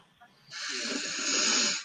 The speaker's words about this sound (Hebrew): אז לפני שנתחיל, לפני שניכנס לעניין, אני רוצה שכולם פה ניקח איזה נשימה עמוקה.